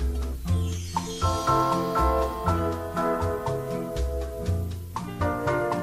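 Exotica lounge music with tinkling, bell-like mallet tones over a steady, loping bass rhythm, with bird calls, played fairly loud, with no voices.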